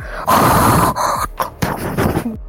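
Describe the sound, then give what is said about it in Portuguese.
A person vocally imitates strange, harsh breathing-like sounds from a recording in a film: a long raspy inhale followed by several ragged gasping breaths and groan-like exhalations, loud, with no words spoken. “Aí tem uns sons assim parecidos com respiração, uma coisa meio que tipo.”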